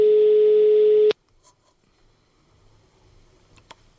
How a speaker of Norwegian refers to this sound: Så prøver jeg å ringe på han nytt